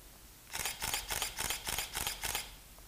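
A T2 DSLR camera fires a rapid burst of about seven shutter clicks at 3.7 frames per second, in a steady, even rhythm, crisp, with no talking over them.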